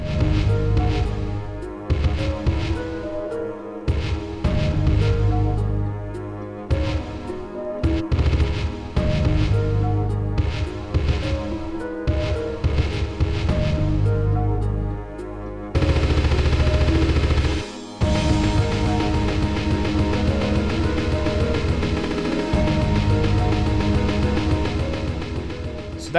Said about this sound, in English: continues playing uh, all for a while there, and then uh, you heard just a little bit of that those breaks coming in over the cello.